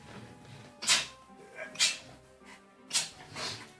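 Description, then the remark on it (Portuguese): A few small, stifled sneezes from someone with the flu come in quick succession, each a short hissy burst of breath, with faint room noise between them and no talking. “Tive que dar uma espirradinha ali.”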